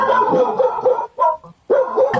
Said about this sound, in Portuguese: Até o cachorro, o da cachorro Bárbara ficou agitado.